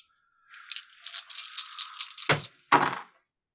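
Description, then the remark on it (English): A handful of seven dice rattles steadily for about two seconds as it's shaken for a strength roll in a tabletop game, then clatters out in two sharp knocks as the dice hit the table. No one speaks. “So you get to roll at least seven dice.”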